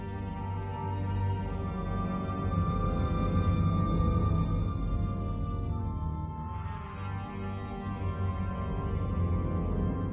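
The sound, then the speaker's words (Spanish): A sweeping orchestral passage with sustained strings and brass holding rich, layered chords, steady and full throughout, with a brighter swell of higher instruments rising partway through. No voices. “Y en Willow,”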